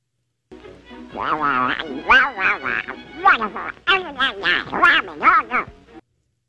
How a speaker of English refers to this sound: That's Donald Duck. Oh God, Donald Duck!